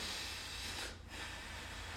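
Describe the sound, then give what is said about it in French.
Steady, airy breathing through the nose: a long hissing breath, a brief pause, then another drawn-out breath, soft and even, with no talking. “Il s'agit de respirer uniquement par le nez ce coup-ci.”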